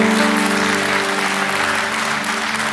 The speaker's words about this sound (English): There are 20 of these firefighters, and at least five of those guys gave their lives to Jesus there at that time. Yeah, we could clap about that. Praise the Lord.